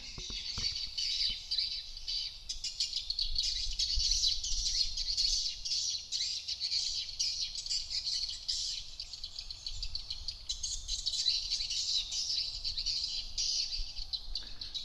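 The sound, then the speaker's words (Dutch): A dense, unbroken chorus of many small birds chirping together around windowless nesting buildings where birds build edible bird's nests, high-pitched and steady throughout, with a faint low rumble underneath and no voices. “Dus deze vogels eh, die moeten andere vogels lokken om naar binnen te komen en een nestje te bouwen.”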